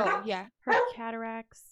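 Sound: dog barking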